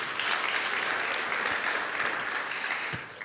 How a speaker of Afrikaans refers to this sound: Ag gee vir hulle 'n lekker hande klap toe.